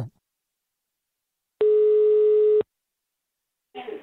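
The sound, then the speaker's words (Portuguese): A single steady telephone ringback tone sounds for about one second, clear and fairly loud, surrounded by silence, with brief faint voice fragments at the very start and end. “Liga, liga, liga, liga, liga. Escuta isso.”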